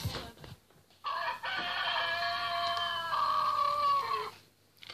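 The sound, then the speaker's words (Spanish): A rooster crows a single long, loud cock-a-doodle-doo lasting about three seconds, its strained, wavering call rising and then holding before trailing off, heard alone with no one talking. “Ya cantó el gallo, despierten o se les hará tarde para asistir a clases.”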